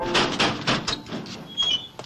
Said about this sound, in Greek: Σιγά, Χριστιανέ μου, πόρτα χτυπάς, όχι Τηλεγράφουμε.